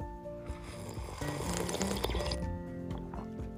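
Wet liquid sounds of someone sipping Nescafé coffee after a toast, a steady slurp building through the middle and easing off near the end, with no talking.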